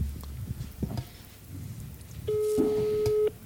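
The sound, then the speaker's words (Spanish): A single ring of an outgoing phone call's ringback tone, from a call placed during a show to wish someone a happy birthday: a steady mid-pitched buzzing hum lasting about a second, preceded by soft rustling background noise. “Estamos llamando a alguien para decirle feliz cumpleaños.”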